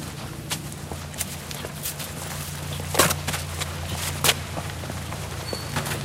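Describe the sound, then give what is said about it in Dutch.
Footsteps walking to the cow barn at a steady, unhurried pace, each step a soft crunch, with a couple of louder scuffs, over a constant low droning hum in the background. “We lopen even door naar de koeienschuur.”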